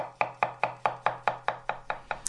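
A knife chopping something on a cutting board: about ten crisp, evenly spaced knocks in a quick, steady rhythm, fairly quiet, with no voices.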